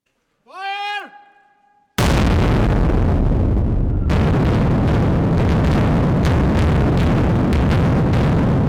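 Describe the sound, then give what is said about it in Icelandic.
After a short, steady horn-like tone, a blast in the Dýrafjörður road tunnel in Iceland erupts with a sudden, very loud boom and continues as a dense, roaring rumble of rock and debris that fills the remaining seconds. “Já eins og heyra mátti þá mikill hávæð og mikið fjör í dýrafélagöngunum í dag og það verið sínt frá sprengingunni”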